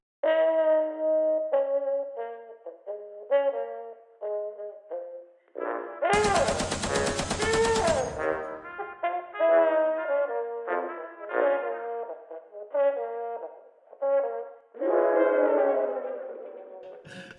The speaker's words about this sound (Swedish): Jag ställer mig för att bränna av kulsprutan. Håller inne knappen.